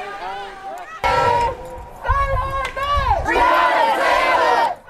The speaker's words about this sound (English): In cities across the nation, the sound of Breonna Taylor's name echoing through the streets. Here in Louisville, protesters crying out for justice from the day into the night